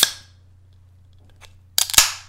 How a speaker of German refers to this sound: So, jetzt gibt es mal ein bisschen hier Dosen-ASMR. Ich hoffe, ich schaff's.